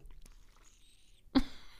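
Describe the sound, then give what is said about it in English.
A faint, high-pitched squeaking of a water bottle being handled, with thin drawn-out squeals followed by a sharper crinkly thump near the end. No one speaks. “That was her water bottle.”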